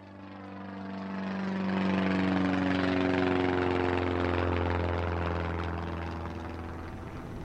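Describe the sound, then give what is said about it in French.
A steady propeller-engine drone from a small chartered airliner flying across South America toward Santiago, Chile, droning on with strong low harmonics that swell slightly and then ease back, heard alone with no voices. “Pour l'occasion, ils ont loué un petit avion de ligne, et quitte à payer le prix autant que l'avion soit rempli, quelques parents et proches se joignent donc à eux.”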